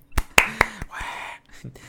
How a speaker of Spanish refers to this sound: Un aplauso.